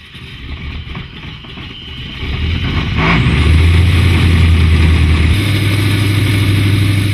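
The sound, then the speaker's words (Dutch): A Vickers Vimy biplane bomber's piston engine, late-1910s technology developed for the First World War, running: its low drone swells louder over the first few seconds and then holds a steady, heavy, throbbing roar, with no voices. “Het is een bommenwerper ontwikkeld voor de Eerste Wereldoorlog. Daar kwam die eigenlijk veel te laat voor. Wel met een prachtig motorgeluid.”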